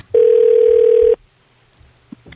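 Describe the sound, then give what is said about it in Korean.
A single steady electronic telephone ringback tone sounds for about a second while a phone call is being placed, loud and clear, then cuts off into near silence with a couple of faint clicks afterward. “뭐 전화 한번 해보시죠.”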